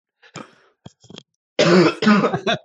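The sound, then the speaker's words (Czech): A loud coughing fit from a person who has choked: a few short, sharp coughs and throat-clearing sounds, then two long, harsh, strained bursts of coughing. “tak, jste, tak mi z tebe zaskočilo.”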